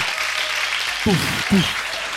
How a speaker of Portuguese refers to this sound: Com vocês, uma salva de palmas para ela